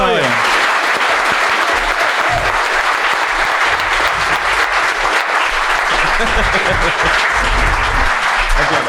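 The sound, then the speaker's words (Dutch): Loud, sustained applause from an audience at a club for its guests, a dense crackle of many hands clapping steadily for about nine seconds, with some crowd voices mixed in. “Dus mag ik nog één keer een keihard applaus voor”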